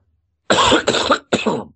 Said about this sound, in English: I'm now about to cough.